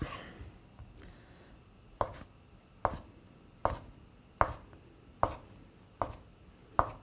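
A knife chops lengthwise through the second half of a block of tofu against a cutting board, cutting it into small cubes, in seven sharp, evenly spaced knocks, roughly one every three-quarters of a second, with no talking.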